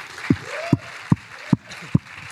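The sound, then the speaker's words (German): Audience applause as a steady hiss of clapping, punctuated by five evenly spaced, low, heavy beats, like rhythmic clapping or stamping, about every 0.4 seconds. “Komm, können wir mal einen fetten Applaus geben?”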